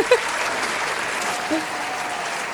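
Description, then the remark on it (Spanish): A steady burst of crowd applause played late as a sound effect on a programme, dense and even for a few seconds, with a couple of brief vocal whoops poking through the clapping. “Ahí queríamos poner unos aplausos, pero no sé qué ha pasado con el sistema.”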